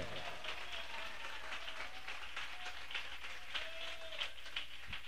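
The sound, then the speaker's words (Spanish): An audience claps together for God in a steady, dense wash of applause lasting several seconds, with a few faint voices calling out beneath the clapping. “Dele palmas a Dios si lo siente.”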